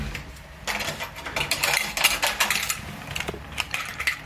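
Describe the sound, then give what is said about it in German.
A hotel room key is picked up in a hotel room along with poles, jingling in a busy run of bright metallic clinks and rattles that lasts a few seconds, with no one speaking. “So, dann schnappe ich mir meine Stöcke und den Schlüssel.”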